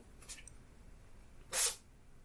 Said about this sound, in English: cat sneezing.